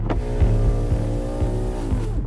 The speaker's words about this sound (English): A big guy driving past in a Holden oh. slows down and gives Whero the evils. Oh, no, no, no, no, no, not you. You're very pretty. The big guy gives Whero the finger and speeds off.